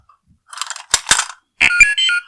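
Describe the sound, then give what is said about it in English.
R2 robot droid sound effect: a quick run of chirps and warbling electronic beeps, first in fluttery bursts, then a louder stretch of sustained tonal whistles ending abruptly. “At the end of every cast, we bring out R2. That was him.”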